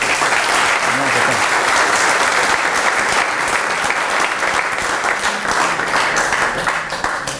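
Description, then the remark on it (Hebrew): Steady, dense audience applause fills the whole stretch, a loud continuous patter of many hands clapping without pause, with a faint voice briefly audible underneath near the start. “כפיים מגיע לה, באמת כפיים.”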